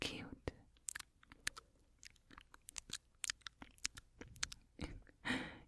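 Binaural wet mouth sounds: rapid, irregular clicks and smacks scattered across a few seconds, with a soft breathy whoosh toward the end and no spoken words.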